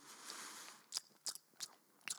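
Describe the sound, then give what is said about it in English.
A voice imitates the loud chewing of a man eating a meal during a quiet part of a movie: a breathy hiss followed by four wet, crunchy smacking bites at an uneven, roughly steady rhythm, with no talking. “And, you know, this guy's just chewing. He's just chewing away, eating his food, and I'm just sitting there like furious.”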